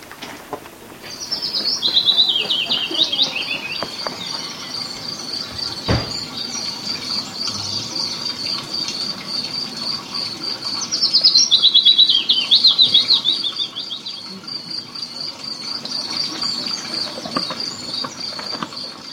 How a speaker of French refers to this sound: Dialogue des oiseaux du site des Grottes de Blano et des sons enregistrés par Pascal Duic.